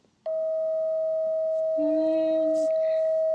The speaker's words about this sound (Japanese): 周波数はですね、えー、ハートのソルフェジオ周波数は 639Hz なんです。